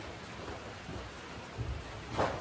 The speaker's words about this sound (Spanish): Me está lloviendo, ¿eh? Nada más te advierto, está lloviendo. Está lloviendo. voy afuera pero está lloviendo.